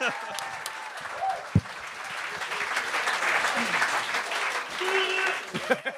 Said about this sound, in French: On accueille la prochaine. Je ressens que vous applaudissez jusqu'à temps qu'elle commence à prendre la parole au micro.